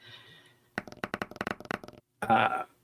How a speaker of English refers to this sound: Uh, rolled a five on the dice.